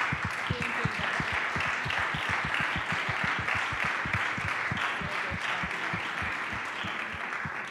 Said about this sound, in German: Also bitte nochmal alle, die irgendwie gespendet haben in diesem letzten Jahr, einmal aufstehen. Wir wollen auch nochmal einen Applaus geben.